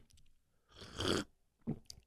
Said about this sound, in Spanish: Esto es un sorbetito de un café que me estoy disfrutando en este momento. Y estoy contento porque no tomaba café negro.